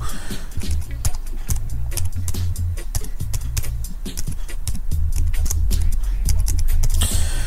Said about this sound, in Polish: mam utrudnione wszystko, bo mam klawiaturę, kurczę, padła mi piszę na bezprzewodowej.